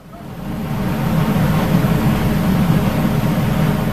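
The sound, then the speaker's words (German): A continuous low engine drone from whale-watching tourist boats, heard underwater, steady and fairly loud throughout with a dense rumbling hum and no voices. “So klingt Whale Watching. Und so klingt es unter Wasser.”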